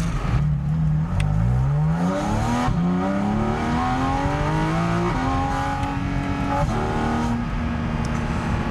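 A sports car launches hard off the line using launch control, its engine note climbing steadily through several gears with brief dips at each shift as the clutch snaps in, loud and continuous throughout with no voices.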